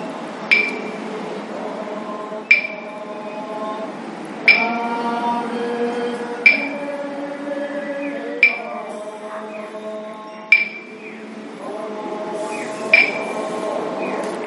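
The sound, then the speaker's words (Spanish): A voice chants a steady, droning melody while two wooden objects knock together in sharp, regular clacks about every two seconds, seven strikes in all, clear. “esa melodía, ese, canturreo que tiene y el golpear ahí de, ese objeto, de, esos dos objetos de madera que, como veis, golpean y suenan.”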